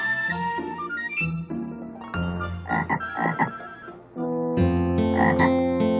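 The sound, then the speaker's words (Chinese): Frogs croak in a series of rough, repeated calls layered over steady, sustained tones that shift pitch every second or two. The sound stays fairly loud throughout, with no voices. “小青蛙走过来，它好奇地问：“ 呱呱，咦，这是什么东西呢？”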